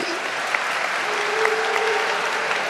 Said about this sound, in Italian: C'è un applauso. Sì, l'ho visto.